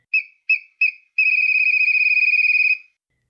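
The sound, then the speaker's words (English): A small, shrill whistle is blown hard: three short sharp toots, then one long, trilling blast lasting over a second, loud with nothing else around it. “He took out his whistle and he blew it with all his might.”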